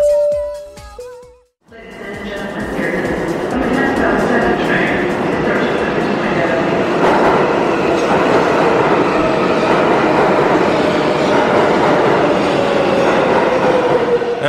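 subway train running

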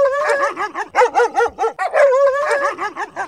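dog barking

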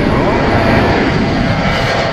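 airplane taking off

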